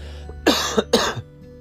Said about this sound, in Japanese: すいません、咳込んじゃいました。